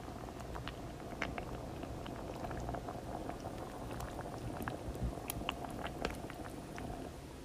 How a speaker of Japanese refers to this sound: ずっとずっとびわの皮むいて種取ってしとってでやっとお鍋に全部むき終わって入れて今煮込んでますね音聞こえますか